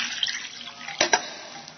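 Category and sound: household object, water being poured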